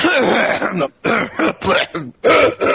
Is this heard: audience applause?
no